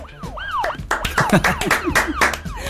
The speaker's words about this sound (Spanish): Diego Armando Maradona estrenó auto nuevo con luces y sirena de policía.